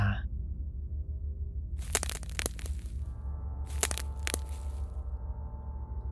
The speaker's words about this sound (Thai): เสียงเหยียบกิ่งไม้ดังใกล้เข้ามา มันกำลังเดินวนรอบบ้าน